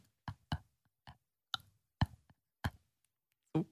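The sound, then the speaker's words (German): A woman makes a series of sharp, wet clicks in the back of her throat, like those she makes while sleeping, about seven of them at irregular intervals, fairly loud with silence in between. “Der sagt, dass ich immer so Klicklaute in meinem Hals hinten machen würde.”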